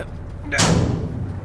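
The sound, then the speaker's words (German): Someone pushes against a heavy door that has no handle: a dull thud, then a low, strained rumbling and creaking for about a second, fairly loud, as the door holds firm and does not move. “Vielleicht öffnet sich die Türe, wenn wir dagegen drücken.”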